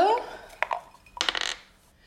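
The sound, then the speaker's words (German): Dice are rolled and rattle and clatter on a hard surface to decide next week's picks: a couple of sharp clicks, then a quick burst of tumbling knocks that settles into quiet. A brief voice sound comes just before. “ja, aber wir dürfen jetzt nicht vergessen zu würfeln für nächste so. Woche.”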